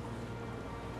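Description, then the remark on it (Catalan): Steady rain falls throughout, a dense, continuous hiss of drops with no pauses or distinct individual hits, fairly full-sounding, with no voices. “Plou i no hi ets i em poso tou.”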